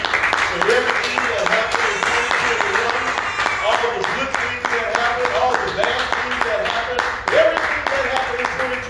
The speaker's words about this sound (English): let's give a hand clap. Amen.